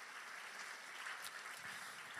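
A church audience at a Sunday service applauds one another, a dense wash of overlapping hand claps that holds at an even level throughout with no voices standing out.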